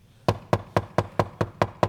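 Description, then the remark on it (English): Eight quick, evenly spaced, sharp knocks on a wooden surface, rapping in a steady rhythm with nothing else heard in between. “I'm knocking on the door of anybody that went to sleep right here.”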